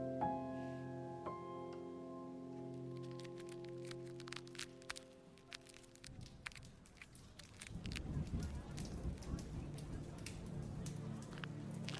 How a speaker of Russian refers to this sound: Ты стоишь у окна и смотришь на мокро-серую брусчатку. Кровь почти полностью сливается с дождевым потоком.